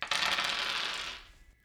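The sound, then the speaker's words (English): A pair of dice rattle and tumble across a wooden board in a quick clatter that lasts about a second before settling and fading, with a faint final tap. “Sitting in one corner of the room Shakuni was practicing his favorite board game, the game of dice.”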